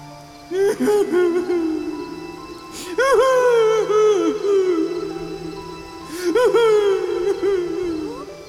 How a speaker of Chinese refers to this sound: 好像是哭声。嗯。难道还有别人也掉进陷阱里了？